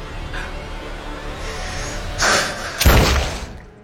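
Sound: gunshot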